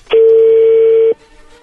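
A single loud, steady telephone touch-tone beep holds for about a second as a phone number is dialed, then cuts off, leaving faint background noise.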